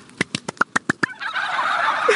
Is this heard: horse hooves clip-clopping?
no